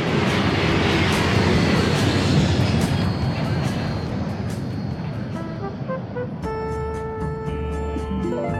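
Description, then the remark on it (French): Loud, steady airplane engine roar fills the cabin on a first-class flight to New York, a dense low rumble that holds throughout, joined near the end by a sustained high-pitched whine layered over the drone. “C'est la première fois de ma vie que je prends l'avion pour New York en première classe.”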